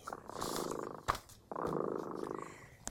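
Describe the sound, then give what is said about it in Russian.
A cat, Dremota, purrs steadily, its low rumbling in two long phrases separated by a brief pause and a soft click, with no voices present. “Слышите, кот Дремота запел свою песенку.”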